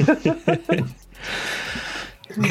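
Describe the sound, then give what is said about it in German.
A deep, audible breath drawn in, a broad airy rush lasting about a second, framed by brief bursts of speech before and after. “Puh, mal kurz Luft holen hier.”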